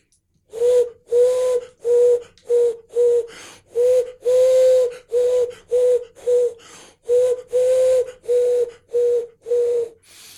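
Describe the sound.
A wooden bird call imitates a common wood pigeon (Columba palumbus): breathy, hollow cooing notes blown in three phrases of about five, steady in rhythm, with no talking.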